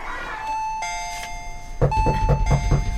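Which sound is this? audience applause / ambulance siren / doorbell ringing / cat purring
doorbell ringing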